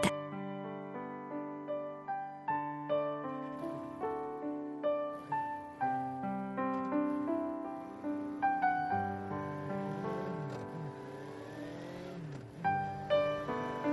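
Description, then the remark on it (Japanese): A motorcycle engine revs loud in quick repeated surges, its pitch climbing and dropping, then settles into a steadier, sustained roar as the bike gets moving with a passenger riding on the back. “怖かったけれどバイクの後ろから見える景色は新鮮だった”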